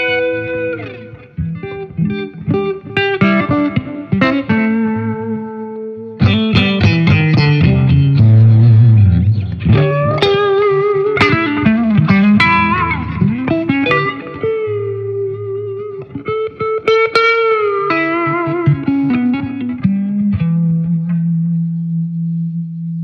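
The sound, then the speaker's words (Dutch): An electric guitar played through a clean Marshall amp: strummed chords and ringing single notes, with bursts of quick strums and sustained tones, steady and fairly loud, with no talking. “En dus, dit is eigenlijk alleen de, de, de, Marshall, zeg maar. Die is eigenlijk angst jaren clean.”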